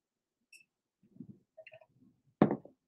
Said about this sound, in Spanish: Un traguito. Disculpen si se oye feo.